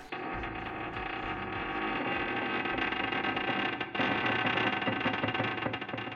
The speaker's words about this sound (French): Un grincement métallique lointain lui répondit. Il remontait le long des parois du vaisseau